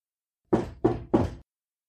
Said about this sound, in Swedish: Jag går och lägger mig igen, men snart knackar det på dörren igen. Inte heller den här gången ser jag någon genom fönstret.